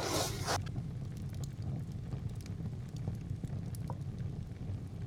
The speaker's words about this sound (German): Wir bleiben noch ein wenig sitzen und blicken ins Feuer.